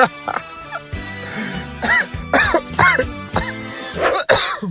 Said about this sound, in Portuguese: Aí, eu já tô tossindo quando eu vou rir. Ah, gente, eu tô velho mesmo.